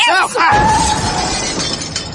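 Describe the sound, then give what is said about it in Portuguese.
A sudden loud crash of shattering glass as a car crashes while being parked in a space too small for it, followed by a couple of seconds of tinkling, scattering shards. Brief voice-like tonal sounds come just before the impact. “eu não falei que, que o carro não cabia nessa vaga?”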